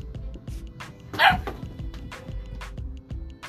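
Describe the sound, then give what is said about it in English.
A puppy gives a string of short, high yapping barks, one louder yelp standing out midway, with the rest fainter and spaced irregularly against a low background hum. “Yo, I swear to God, yo, I'm about to fucking slap the shit out of this puppy.”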